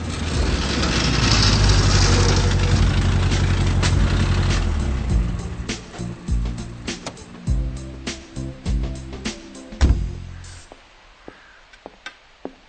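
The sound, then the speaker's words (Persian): A car engine roars with a loud, rough, rattling exhaust, then settles into an uneven idle punctuated by irregular pops and sputters, as the car enters a repair garage yard; its exhaust pipe needs replacing. No one speaks. “و همین که فیلیپ وارد محوطه تعمیرگاه می شود، تعمیرکار نیز فورا متوجه می شود که لوله اگزوز جدیدی فلیش یعنی لازم و ضروری است.”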